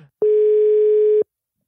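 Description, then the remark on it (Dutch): A telephone dial tone while calling the creative director of the Belgian TV channel VTM: one steady, mid-pitched electronic beep lasting about a second, loud and unwavering, then cutting off abruptly into silence. “En we gaan hem eens bellen.”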